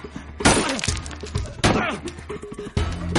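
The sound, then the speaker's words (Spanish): A wooden back door is smashed with a sculpture: three loud, crunching blows about a second apart, each followed by cracking and splintering wood, with quieter rattling debris between them. “Rompe la madera.”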